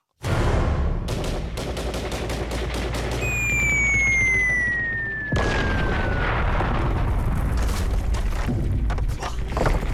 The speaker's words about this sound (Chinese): 团长，敌人的重机枪哇哇叫，咱们的人冲上去就是个死。